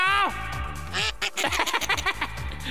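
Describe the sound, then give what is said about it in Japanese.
A loud, nasal frog-like croaking call with quacking, duck-like honks, repeating in an irregular, bouncy rhythm, like a comic frog sound effect used as a new sound effect on a show; a low rumble sits underneath. “このカエルの声もなカエルなのかなんだか近所の親父なのかわかんねえけどウルトラ怪獣みたいな鳴き声でおい夢に出てきそうだなこれまあでもこれがまた癖になるってわけで”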